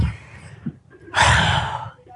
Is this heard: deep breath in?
yes